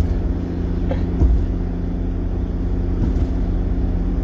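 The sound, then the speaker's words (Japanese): A car's steady low rumble from inside the cabin, with a couple of dull jolts and rattles as it rolls over uneven ground. Continuous and fairly loud throughout. “ガタガタはあるけど”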